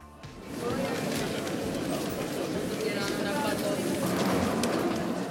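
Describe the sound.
Busy railway station ambience at the station in Przemyśl, Poland, near the Ukrainian border, where Ukrainians stand in long queues: a dense, steady murmur of many overlapping voices fills the whole scene after a brief quieter start, with scattered clatter and what may be pigeons cooing underneath.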